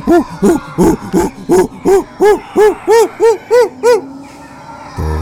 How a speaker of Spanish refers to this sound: Eres un mono. Y todos los monos gritan.